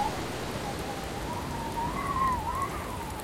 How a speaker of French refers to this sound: La pluie va me faire déborder si ça continue.